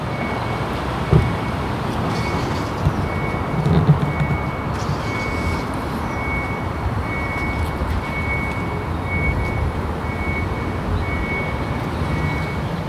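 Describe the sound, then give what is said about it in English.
A Nissan Leaf electric car's reversing warning, recorded with the microphone held out the window as the car backs up, gives a steady series of evenly spaced electronic beeps over a constant low hum of vehicle and outdoor noise, with no one speaking. “but I'm going to stick the microphone out the window But I, am going to back up now, and you're going to hear the, the backup sounds that the car makes.”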